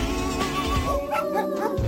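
Several high-pitched puppy yips and little barks pop out in quick, uneven bursts over the bright, tuneful backing of a children's song, with a short whimpering note mixed in, all fairly loud.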